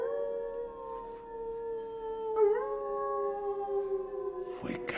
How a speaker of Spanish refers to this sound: Escuché. Muy cerca aulló una manada de lobos.